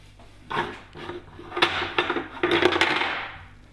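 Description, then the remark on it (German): Egg cups topple over inside a cupboard, a flurry of light clinks and taps over a few seconds, with no voices. “Das waren jetzt die Eierbecher, die umgefallen sind.”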